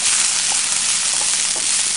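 Fried rice sizzles steadily in hot oil, a loud, dense crackling hiss that holds constant throughout, with a few brief scraping stirs and no voices.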